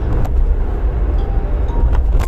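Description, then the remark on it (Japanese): Steady low road rumble inside a moving car, a constant engine and tyre drone filling the cabin, with a few faint clicks and rattles over it and no one talking. “まあまあまあでもね車に乗って移動しているので別にあの寒ければ”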